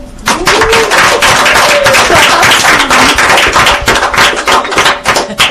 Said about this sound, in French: Remercions aussi tous nos partenaires et notamment, bien sûr, Oasis Centre des Femmes qui nous reçoit ce soir. Euh, peut-être peut-on les applaudir